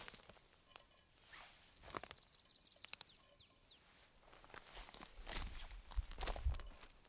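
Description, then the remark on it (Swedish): Seeds falling into a tin can while someone sows seeds along rows make scattered, light metallic ticks and patters over shuffling footsteps and crunchy rustling, with a few faint bird chirps and no talking. “Ja, här hör man det här äh, när fröna faller i plåtburken.”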